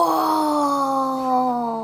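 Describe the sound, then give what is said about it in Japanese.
A voice imitates Elmer the elephant lifting his trunk and trumpeting: one loud, drawn-out call held for about two seconds, its pitch steady and sinking slightly toward the end, heard on its own without talk. “ついにエルマンは我慢ができなくなって、鼻を持ち上げ大きな声で叫びました。”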